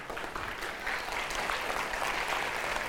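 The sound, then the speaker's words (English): An audience at a church service claps steadily, a dense wash of many hands patting at once, holding a fairly even loudness for the whole stretch with no voices standing out. “Don't clap. We're not done.”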